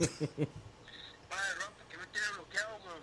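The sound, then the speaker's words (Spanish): A phone rings with a WhatsApp incoming-call ringtone: a few short tonal pulses and a brief steady chime, quickly followed by loud voices talking and laughing over it. “Ahora sí, mira, ahora sí está sonando. Y por WhatsApp, cabrón, la peor llamada del mundo.”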